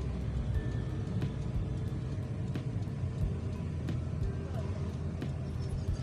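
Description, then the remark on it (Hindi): A heavy truck loaded with goods and covered with a tarpaulin rolls past in bright sunshine, with a deep, steady engine rumble and road noise that stays loud throughout, accompanied by faint ticks and rattles. “माल से लड़ा हुआ ट्रक जा रहा है जिसको त्रिपाल से ढका हुआ है ताकि माल ना भीगे”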